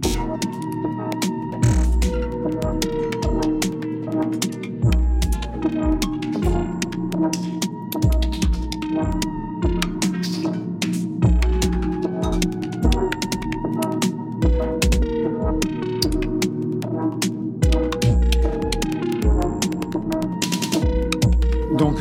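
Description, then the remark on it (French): An instrumental synthesizer track, made solely with Ableton's Operator synthesizer and Echo delay, plays steadily at moderate loudness, with layered sustained electronic tones over a busy pulse of clicky percussive hits and deep bass thumps. No one speaks. “cet album a été conçu exclusivement en utilisant Operator, qui est un des ah, synthés de base d'Ableton, et Echo”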